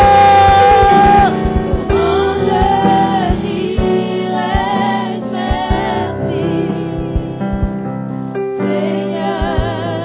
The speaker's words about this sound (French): pousse des cris de joie.